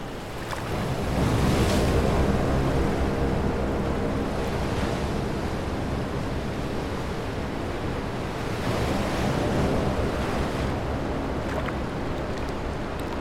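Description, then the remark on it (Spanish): Ocean waves surge and crash against a breakwater in a steady roar, with several heavier swells breaking every few seconds and a rush of wind over the surf. No voices. “Regreso para pisar esta tierra y caminar con las mujeres que vuelven a este rompeolas a detener la marejada.”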